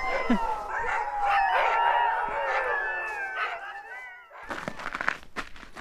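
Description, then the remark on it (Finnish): A pack of about 15 outdoor sled dogs at a musher's yard in Kemimaa howls together, many long wavering voices overlapping loudly for about four seconds, then cutting off abruptly into a burst of rough outdoor noise. “koiralauma hiljeni.”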